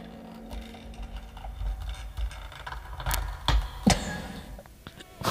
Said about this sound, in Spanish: con la puerta, cada vez pesa más.